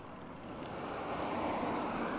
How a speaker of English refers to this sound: I wish this lav mic was stereo just to get the panning of that car going past.